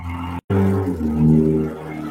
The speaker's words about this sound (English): No, that was actually they a little stupid car. Oh, nice. Somebody needs an exhaust system.